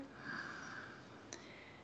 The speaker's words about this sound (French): Alors, on inspire.